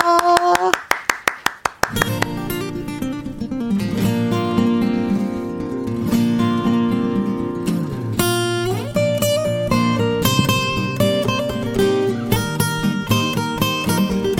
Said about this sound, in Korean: 박수 보내드립니다.